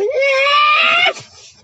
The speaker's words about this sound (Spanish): Los gatos haciendo bulla ahí.